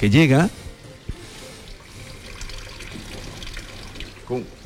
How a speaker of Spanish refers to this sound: Y ahí precisamente vamos a escuchar el sonido del agua